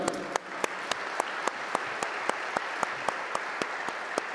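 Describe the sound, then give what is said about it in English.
A crowd applauds the organizing committee of an event celebrating César Chávez's legacy, a dense wash of clapping with sharp, evenly spaced claps cutting through in a regular beat, sustained at a moderate level with no talking. “And we want to make sure that we give the entire committee a big round of applause.”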